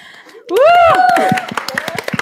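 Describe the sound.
A few people start clapping, a quick scattering of sharp hand claps about a second long, following a rising, drawn-out vocal cry and mixed with voices.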